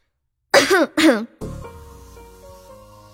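Two harsh, loud coughs in quick succession from choking on hot steam rising from boiled water, each lasting a fraction of a second, followed by a faint, steady tonal background with no further coughing.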